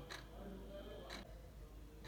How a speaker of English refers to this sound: I want to show you how this time illustrates time in life. If you listen to this clock, you can see it's sounding and is as well moving.